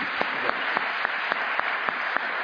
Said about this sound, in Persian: برای این مرد قیابا میتونید یه کف بزنید واقعا